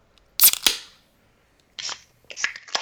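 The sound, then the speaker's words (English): A sharp metallic snap as a can of craft lager (4.7% ABV) is cracked open, followed by short bursts of airy fizzing hiss. No one speaks. “So, we're going to crack one of those open right now.”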